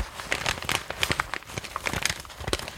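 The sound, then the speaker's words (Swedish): Continuous paper crinkling, rustled to imitate a crackling wood stove fire, with irregular sharp crackles and pops. No voices, just steady rustling throughout. “Så där alltså, man kan bara ta eh, ett ljud som är pappersprassel och så tänker man så här, nej men det här är en brasa.”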